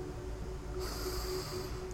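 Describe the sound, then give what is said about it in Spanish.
A steady breath during a breathing exercise, with a soft airy rush that swells about halfway through, like a deep inhale drawn slowly through the nose, heard alone without any talking. “Haré respiración para aportar vida y conciencia.”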